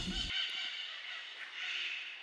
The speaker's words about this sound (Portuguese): gente, se vocês estão vendo uns passarinhos aí, é porque é isso aí, beleza? É isso, isso aqui é Minas Gerais.